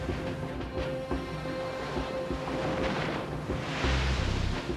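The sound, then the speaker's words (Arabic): Rough, high sea waves sloshing and slapping against the wooden hull of a stopped yacht in the middle of the sea, with a steady rushing roar and a faint mechanical hum underneath, building to a louder surge near the end. “انطلق المركب وبعد أربع ساعات فقط توقف في الماء الموج عال والمياه تضرب خشب اليخت نحن في منتصف البحر”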